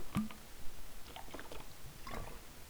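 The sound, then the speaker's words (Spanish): Someone takes a sip of water: a few quiet, wet mouth clicks and soft swallowing sounds spread over a couple of seconds, with no talking. “Voy a beber un poco de agua.”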